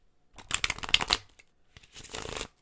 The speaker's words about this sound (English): There is nothing ASMR about me shuffling cards. God dang it. There's nothing ASMR about it.